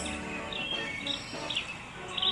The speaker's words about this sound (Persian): گنجشکی روی درخت جیک کرد و گفت بهار خانم خوش اومدی عیدی منو میدی؟